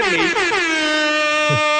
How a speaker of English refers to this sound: Can we get some air horns for Marcus?